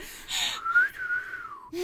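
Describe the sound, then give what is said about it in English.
A person imitates a wolf whistle with a single sliding whistled tone that rises, holds, then glides downward, fairly loud with no talking over it. “You see something like that, you're gonna whistle.”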